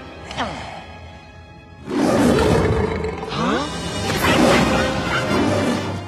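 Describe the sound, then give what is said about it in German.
A massive, rumbling movie T-Rex roar made from real lion recordings blasts in after a brief sharp cry, then builds into loud, sustained, layered bellowing with snarling, growling texture. “echte Löwensounds kamen hier zum Einsatz. Ihr habt es vermutlich direkt erkannt. Ja, es ist der T-Rex aus Jurassic Park.”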